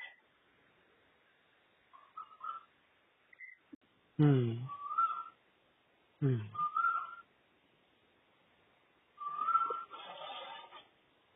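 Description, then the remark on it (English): Faint birds chirp in short, scattered whistly calls outdoors beside the sea in Versova, Andheri, while a person murmurs a couple of brief hums between them. “hear the birds.”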